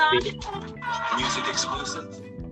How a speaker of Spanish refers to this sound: ¿Qué, fue eso? Sí, sí. Es un burro.